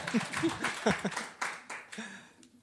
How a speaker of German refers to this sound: Kleiner Applaus für ja.